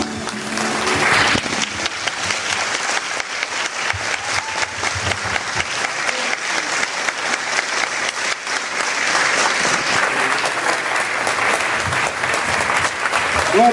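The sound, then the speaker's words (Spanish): Sustained audience applause, a dense wash of many hands clapping steadily for the whole stretch, loud and even with rapid overlapping claps and no voices standing out. “ese aplauso, jóvenes.”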